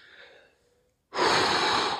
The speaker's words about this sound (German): Zieht euch nochmal richtig in die Länge. Ja, atmet mal richtig tief durch.